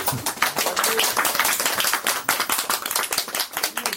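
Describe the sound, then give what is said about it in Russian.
An audience claps for a guide dog named Barya after it picks up a dropped cane: a steady, dense wash of many hands with sharp, irregular slaps, fairly loud and continuous for the whole stretch, with no voices standing out. “Поаплодируем.”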